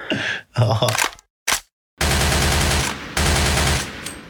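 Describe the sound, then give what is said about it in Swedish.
A gunshot sound effect: a few sharp, loud bangs separated by brief silences, then a dense, sustained burst of rapid gunfire that runs to the end. “Var det där ett gunshot?”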